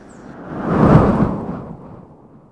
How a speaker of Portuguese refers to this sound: O vento suduca. O vento poderoso que entra na praia da Portinha com toda a força e muda o tempo, trazendo a frente fria.